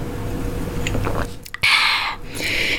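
Drinking noises of someone sipping water: a few soft wet mouth clicks and sips, followed by a louder, breathy rush of swallowing and exhaling, with no talking.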